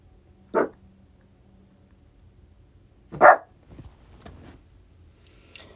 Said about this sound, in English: Now, sorry guys for the barking. My dog is in my studio.